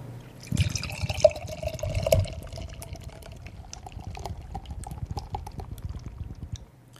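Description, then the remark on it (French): Beer glugs from a large 47-centilitre (16 oz) can of Andalusian Spanish beer into a big glass, a steady pour with fizzing and bubbling that rises in pitch as the glass fills, then tapers off into quiet. “je, vais essayer de faire euh, mon ASC bière.”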